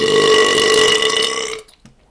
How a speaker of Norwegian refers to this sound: Et godt rap